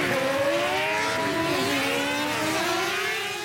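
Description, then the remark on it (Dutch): A moped engine is started and revs loudly at seven in the morning while the neighbourhood still sleeps, its buzzing whine climbing and dipping in pitch for a few seconds, with no voices. “Piet start zijn brommer.”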